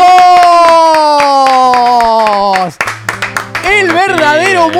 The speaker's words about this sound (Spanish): ¡Aplausos!